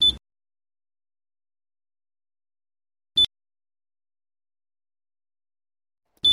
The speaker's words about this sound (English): So I think we all can agree that that is rather annoying. and uh, just for the record, I played that three times in a row. Really, for Dan's Machine, this is just happening with a single beep as the Mac comes out of sleep.